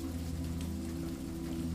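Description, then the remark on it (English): Steady rain patters continuously, a soft even hiss of drops with a low, constant hum beneath it and no voices. “Now that the rumbles have subsided, to be replaced with a steady patter of rain.”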